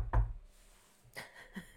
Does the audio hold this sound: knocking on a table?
yes